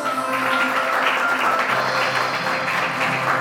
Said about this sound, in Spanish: ¡Wow! Espectacular la clase que tienen estos chicos. Muy bien, un fuerte aplauso para ellos.